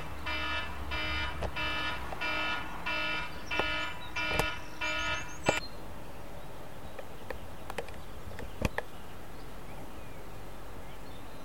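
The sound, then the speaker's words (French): A mobile phone alarm rings in a quick run of repeated electronic beeping pulses for about five seconds, then cuts off, leaving quiet outdoor ambience and a few sharp clicks. “Sauf celui du téléphone portable.”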